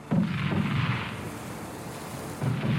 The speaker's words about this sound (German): Es war aus solidem Stein und es brauchte beträchtlichen Beschuss von den 10-Inch-Kanonen.